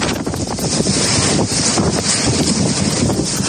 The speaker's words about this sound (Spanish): Contamos también que toda la costa de Galicia y el interior de la cordillera cantábrica están en estos momentos en alerta naranja por fuertes rachas de viento. Así suena en el paseo marítimo de La Coruña.